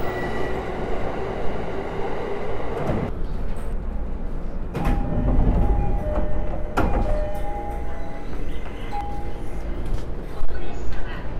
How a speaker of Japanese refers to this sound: さあちょうど電車来たラッキーさすがに電車の中に乗ってて喋ってるとおかしいので電車に乗ったら一旦切ります